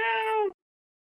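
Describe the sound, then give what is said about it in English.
A person imitates a cat's meow once: a short, steady, tonal cry lasting about half a second, then silence. “Meow.”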